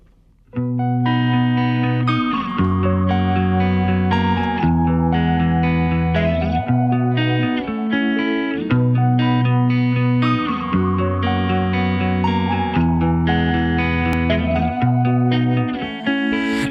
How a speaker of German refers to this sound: Und bis du dich vielleicht meldest oder ich wieder weiß, was ich dir will erzählen, hörst du einmal mehr durchschnittliche Schweizer Musik.